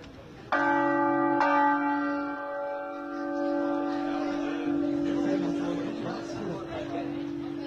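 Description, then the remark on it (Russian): A church bell rung by hand strikes twice in quick succession, loud, its deep tone humming on and slowly fading while faint voices and background noise continue underneath. “Ну, сложно сказать, я, по-моему, научился это делать намного быстрее, когда пробовал позвонить в колокол.”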